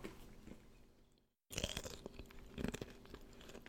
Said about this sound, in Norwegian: Den knaselyden der er ikke nøtta, det er skallet. Ja. som er tørt.